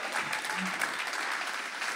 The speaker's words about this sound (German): Ich glaube, ihr könnt euren Pastoren wirklich den größten Applaus geben, weil ihr habt absolut geniale Pastoren und Leiter